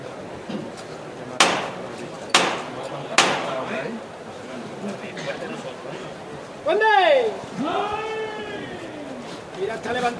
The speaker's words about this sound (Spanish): Va a sonar el martillo sin solución de continuidad.